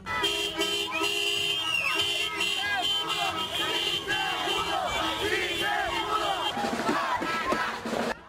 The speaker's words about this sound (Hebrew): אלה קריאות שמחה על לכתו של האיש ששלט בבוליביה ביד רמה כבר 14 שנים